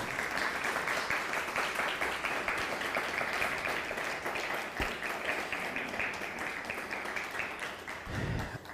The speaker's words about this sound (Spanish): Venga ese ánimo, un fuerte aplauso a Todopoderoso.